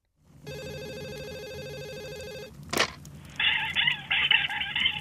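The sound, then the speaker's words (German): A telephone rings once in a steady, buzzing electronic tone lasting about two seconds, then a sharp click cuts it off, followed by a warbling, chirpy sound. “Lena will eigentlich sofort zur Haustür sausen, da klingelt das Telefon.”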